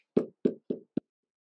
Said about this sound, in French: C'est d'ailleurs pour cela, parce que mon bien-aimé, Akadosh Baruch frappe tout le temps à ma porte.